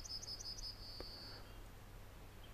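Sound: yellowhammer song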